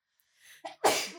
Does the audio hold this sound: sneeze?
yes